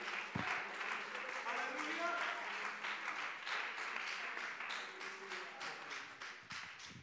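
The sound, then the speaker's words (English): A crowd claps their hands to the Lord steadily for about seven seconds, a dense wash of many hands clapping at once, with faint voices and a few brief vocal tones mixed in. “Uh, in Jesus' name, uh, would you clap your hands to the Lord with all of your might?”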